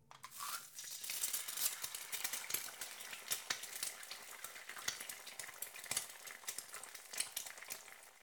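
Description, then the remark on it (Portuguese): Steady crackling sizzle of desalted, sliced cod searing in a very hot frying pan, a dense hiss with scattered sharp pops throughout, fairly loud, with no one speaking. “Após retirar da água e fatiá-lo, sele em uma chapa ou em uma frigideira bem quente.”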